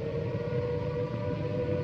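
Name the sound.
air raid siren wailing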